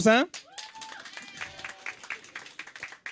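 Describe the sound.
An audience breaks into scattered applause as a vote by applause, steady crackling claps running under cheering voices, with a loud shout at the start and a few thin whistles rising over the clapping.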